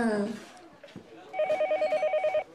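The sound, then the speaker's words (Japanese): A phone rings with a rapid, trilling electronic tone for an incoming call, steady and lasting about a second, after a brief burst of voice at the start. “から電話だなんだろう”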